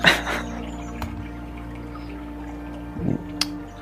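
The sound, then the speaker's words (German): Quiet forest ambience: a steady low background bed with a few brief bird chirps and soft trickling, dripping water sounds, no voices. “Auch du hörst Tiere, Vögel, Insekten, Wasser, alles.”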